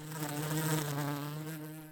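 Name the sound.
honeybee buzzing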